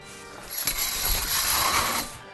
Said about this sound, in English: And Daphne closed the curtains quickly.